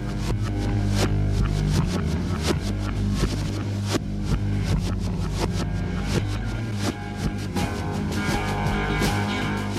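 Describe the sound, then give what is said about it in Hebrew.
Dense rock music built on a single sustained chord, with guitar and drum sounds played in reverse so notes swell up and cut off abruptly, creating a loud, throbbing, droning texture. “יש כאן גם הקלטות של גיטרות ותופים שמנוגנות לאחור”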